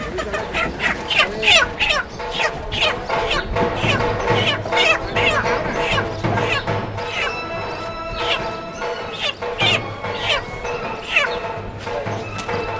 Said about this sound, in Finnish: Se teurastaa kanoja.